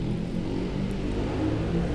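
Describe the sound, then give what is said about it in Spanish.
A motorcycle engine rumbles steadily as it passes by, its low, throaty drone holding at an even loudness for the whole two seconds, with no one speaking. “Saludos a la moto.”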